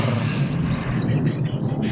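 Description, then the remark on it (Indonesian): A loud, steady racing motorcycle engine roar fills the whole two seconds, a dense low rumble with a gritty rasp above it and no voices. “ya ada ada motor racing terus ada pesawat lagi”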